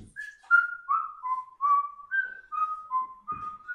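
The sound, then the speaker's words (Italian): Someone whistles a short, lilting tune of clear sustained notes stepping up and down in pitch, heard alone without talking, at a fairly even moderate loudness, as the whistler walks away along the corridors. “Sentite il fischiettio che si allontana e occhi che è tipo già nudo per la strada dei corridoi, con i vestiti lasciati per strada.”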